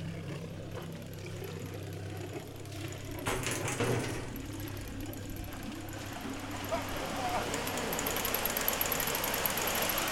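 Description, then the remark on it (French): A manual canal lock sluice gate being cranked by hand, with steady mechanical clanking and ratcheting over a low hum, as the sluices slowly open and a broad rush of water flows through, lowering the lock's water level, swelling louder toward the end. “Et là, les vannes s'ouvrent doucement et l'eau passe.”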